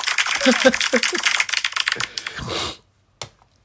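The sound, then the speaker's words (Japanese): Rapid plastic clicking and clacking of a Rubik's cube being twisted, a dense run of sharp turns for over two seconds, then a pause and one last click. “で、揃えれるようになるように練習して、最後、この指だけで、このチャッチャチャチャチャチャチャっていう音で、あの、完成させるのが夢です。”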